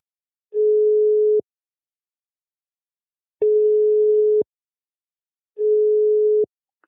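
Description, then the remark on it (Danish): A telephone ringback tone from an outgoing call to a project manager, an architect: three steady, clear beeps about a second long each, separated by longer pauses, with no voices. “Vi ringer til projektchef, arkitekt Jørgen Søndermark.”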